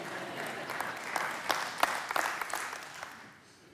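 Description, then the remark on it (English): A crowd applauds steadily for a few seconds, a dense wash of many hands clapping with a few sharper claps standing out, then the applause tapers off toward the end. “They're clapping there.”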